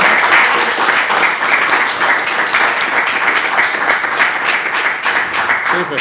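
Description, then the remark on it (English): A steady round of applause from a crowd fills the whole stretch, dense and loud with constant hand-clapping texture and no pauses or speech on top. “And uh, ladies and gentlemen, look a round of applause and satisfaction.”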